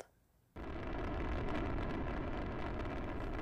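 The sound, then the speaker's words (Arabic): A deep, thundering rocket engine roar bursts in after a brief quiet moment and holds steady at full loudness, a dense rumbling wall of sound with no voices: a rocket launching in May 1991 from a pad in present-day Kazakhstan, carrying Sergei Krikalev, Helen Sharman and Anatoly Artsebarsky to the Soviet space station Mir. “ارتفع هدير المحرك من قاعدة الانطلاق فيما يعرف اليوم بكازاخستان ثلاثة اثنان واحد وبعد تسع دقائق من الاهتزازات العنيفة كان سيرجي في الفضاء”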